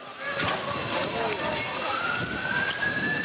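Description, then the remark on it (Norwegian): An ambulance siren wails steadily at the government quarter as rescue workers race against the clock, its pitch slowly climbing, fairly loud over a busy, noisy outdoor background with muffled voices. “Ambulanser i regjeringskvartalet redningsarbeidere som jobbet mot klokka.”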